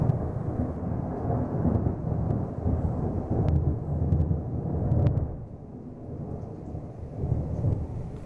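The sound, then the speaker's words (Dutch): Deep, rolling thunder rumbles continuously through a steady wash of heavy rain, with a few sharper crackles cutting in near the middle, during a storm with lightning. No voices, just the storm. “Amper een dag oud en nu al donderslagen en bliksemflitsen.”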